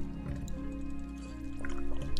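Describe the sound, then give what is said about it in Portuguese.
Someone takes a quick sip of water, with soft wet slurping and swallowing sounds over a steady low background hum. “Peraí, deixa eu tomar um golinho de água.”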